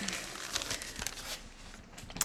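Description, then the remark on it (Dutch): Paper rustles and crinkles as a stack of Donald Duck comic magazines, to be thrown away, is handled: a steady bright crackling with small sharp flicks, fairly quiet and without any talking. “Ik, ehm, oh, weer een hele stapel Donald Duck die ik weg moet gooien.”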